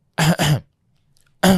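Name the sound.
imitated cough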